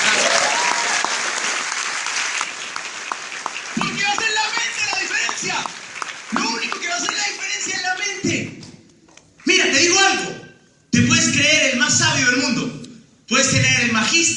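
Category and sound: crowd, audience applause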